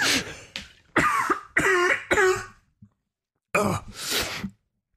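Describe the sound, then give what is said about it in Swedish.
A burst of harsh, close-up coughing, several hacking coughs in quick succession, a brief pause, then a final pair of loud, raspy coughs right into the microphone. “Jag hostar som fan. Rätt in.”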